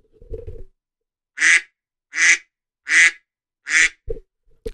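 An iPhone duck-quack ringtone plays four loud, evenly spaced electronic quacks, with brief low thumps of handling noise just before and after and no talking.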